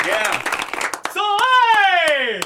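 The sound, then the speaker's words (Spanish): Scattered hand claps from an audience ring out for the press at the El Tigre award presentation, mixed with a loud sustained voice, like a drawn-out cheer or call, sliding downward in pitch over the last second. “Vamos a darle también un aplauso.”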